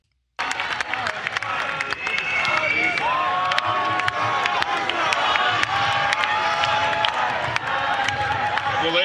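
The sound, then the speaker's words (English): A large rally crowd of almost 300,000 people cheers and applauds loudly and steadily, a dense roar full of sharp claps, with high whistles and shouts rising out of the din for about nine seconds. “What an extraordinary crowd, and it was organized in just a few days.”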